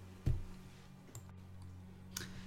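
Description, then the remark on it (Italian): Three sharp computer mouse clicks, made while browsing through pages, spaced irregularly over a couple of seconds, the first the loudest, with a faint steady electrical hum underneath and no talking. “Come sempre sentirete i miei click che navigo per pagine per ricordarmi le cose che non mi ricorderò mai.”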